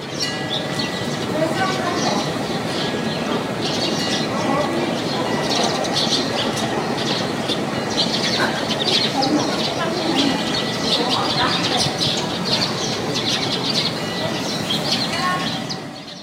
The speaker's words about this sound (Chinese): 刚才描述的那个场景，现在就用耳朵感受一下吧。早上的微风，京杭大运河。有一座来历不明的塔，小鸟铃铛。